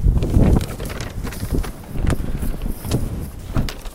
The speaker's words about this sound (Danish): Nu går jeg ud i, i blæsten.